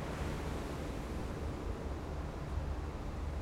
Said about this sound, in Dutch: Waar zijn we? Kijk maar. Zee, strand, meeuwen. Mooi.